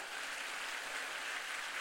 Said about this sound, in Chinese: 我们再给公司一个热烈的掌声鼓励一下。